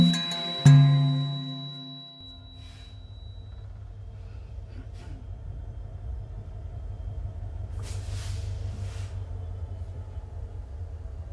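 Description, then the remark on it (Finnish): A steady low rumble fills the space inside a moving passenger train carriage crossing Tanzania at night, with a brief tonal hum at the start and faint hissy rattles drifting through; no one speaks. “Nyt on tulossa jo toinen yö, jonka vietämme tässä junassa.”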